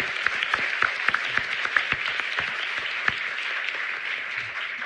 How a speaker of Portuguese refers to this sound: Salva de palmas. Arrasou.